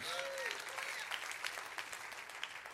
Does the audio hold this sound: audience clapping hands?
yes